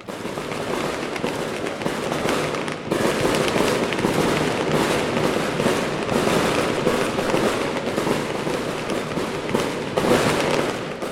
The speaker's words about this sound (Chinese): 而且听得出来，这并不是重型烟火，不是那种一零一那种大型的烟火，而是比较中型的烟火。